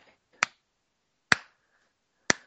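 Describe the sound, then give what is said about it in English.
Three slow hand claps, evenly spaced roughly a second apart, each a sharp, crisp smack that dies away quickly, with silence between them and no one talking. “Don't you slow clap me?”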